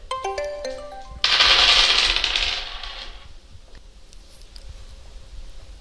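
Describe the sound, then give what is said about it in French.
A brief bright chime rings out, then a set of dice bearing drawings is thrown, clattering and rattling loudly for about two seconds across a hard surface before settling into faint scattered clicks. “je suis venue avec un jeu de dés. Est-ce que tu accepterais, pour euh, finir notre échange, eh bien, de lancer ces dés, de choisir un dessin porté par ceux-ci et surtout de partager eh bien, ce que ça, ce que ça t'évoque, ce que ça t'inspire”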